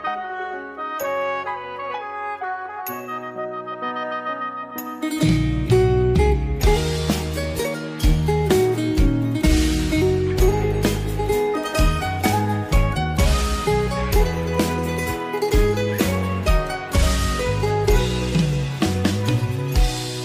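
A song played on a radio programme begins with a soft, chiming melodic intro, then a full band with heavy bass and drums kicks in around five seconds, playing loud and steady with no voices yet.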